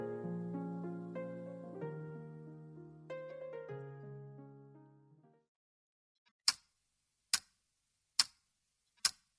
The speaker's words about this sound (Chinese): 分开以后，每个夜晚格外的寂静。滴答滴答，像大钟在陪着我回忆。